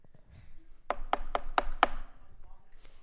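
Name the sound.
knocking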